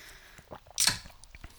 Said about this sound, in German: haben wir jetzt äh, eine schöne Dose Highball aufgemacht. Äh, Highball. Weiß ich auch gar nicht, was ob, ob, Sagt euch das was? Das ist doch Whisky, oder? Highball? Genau.